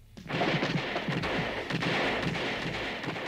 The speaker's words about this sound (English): Number five is blown to pieces by heavy gunfire.